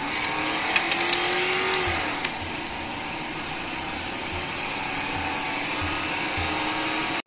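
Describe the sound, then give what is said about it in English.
A Ford Crown Victoria's engine revs up once near the start, then settles into a loud, steady, throaty rumble that continues without any talking. “Now sit back relax, and enjoy the orgasmic sound of a Crown Vic.”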